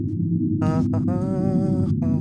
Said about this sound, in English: Well, you hear, you begin to hear the engines of the ship activating.